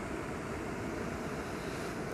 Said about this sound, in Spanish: Así que les voy a brindar este recurso con este sonido maravilloso de fondo que tengo que es el mar.